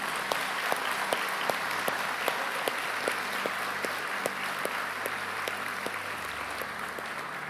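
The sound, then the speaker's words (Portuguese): A church audience applauds the volunteers who serve at its services, a steady, dense wash of clapping with sharper individual claps popping out, sustained evenly for several seconds with no talking over it. “Vamos honrar nossos voluntários, dê uma salva de palmas a todos aqueles que nos servem nos cultos.”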